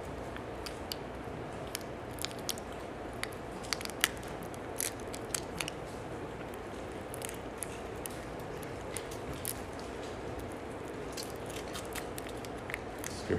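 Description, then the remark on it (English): Steady crinkling and crackling of plastic as small sealed communion cups are peeled open during a Baptist church service, with sharp little snaps and rustles scattered throughout and no voices. “communion while you open that one for Brother Sam”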